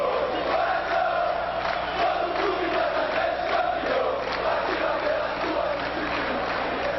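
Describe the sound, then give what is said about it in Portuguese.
A large football stadium crowd sings a chant together during a match as Rony dances on the pitch, a dense, sustained roar of voices with a steady rhythmic pulse, loud and continuous throughout with no single voice standing out. “E Rony dança ao som da única música que se ouve agora no estádio.”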